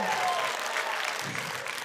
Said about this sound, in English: How many people here? By round of applause how many single people are here? Oh, yeah.